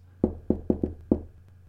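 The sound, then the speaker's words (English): Five solid knocks on a wooden door of a student's room, fairly loud, in a loose uneven rhythm with a quick pair near the middle, each a dull resonant thud, then quiet with no answer. “She knocks on Sarah's door, but there's no answer.”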